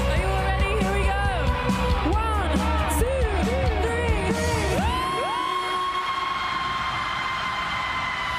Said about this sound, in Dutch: En dan vragen de bandleden altijd aan fans om mee te brullen aan het einde van het liedje. Gebeurde nu ook en een aantal mensen bekomen het podium.